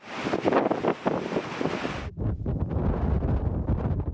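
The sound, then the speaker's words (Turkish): Loud, roaring wind buffets the microphone while heavy storm waves up to 5 metres high crash and churn on the flooded, subsided İskenderun coast after the earthquake, a broad rushing surge that cuts out briefly before the low rumbling wind and water resume without pause. “Çökmelerin yer yer 1 metreyi bulduğu İskenderun sahilinde dalga boyları 5 metreye kadar ulaştı.”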